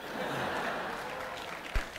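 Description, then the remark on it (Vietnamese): An audience claps steadily in a hall, a dense wash of many hands at an even, moderate level, with one louder thump near the end. “nhiều ông vỗ tay cổ suý cho nó ra ngoài trời mưa đấy”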